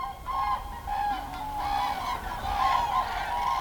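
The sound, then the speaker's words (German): Hundreds of common cranes, gathered in undisturbed wetlands on former open-cast mining land where they perform their courtship dances each year, call continuously, a dense chorus of loud, harmonic trumpeting and honking notes overlapping throughout, with no speech. “Hunderte Graukraniche haben die von Menschen ungestörten Feuchtgebiete entdeckt und führen hier jedes Jahr ihre Hochzeitstänze auf.”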